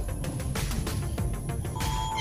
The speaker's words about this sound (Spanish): It's a monkey.